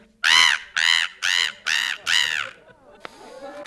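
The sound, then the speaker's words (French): A voice imitates a seagull, letting out five loud, nasal squawking calls in a quick, even rhythm, followed by faint rustling and a brief knock. “Moi, je fais, mouette.”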